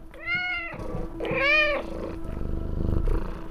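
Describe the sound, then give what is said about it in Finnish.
A domestic cat, one of five living in a home in Rome, gives two drawn-out meows, then settles into a low, steady purring rumble that carries through to the end. No one speaks. “joka asuu Roomassa yhdessä viiden kissansa kanssa.”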